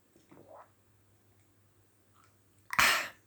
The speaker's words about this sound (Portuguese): Ao minuto não sei quantos deste, deste podcast, bebi o meu primeiro golito de água. E olhem que ajudou.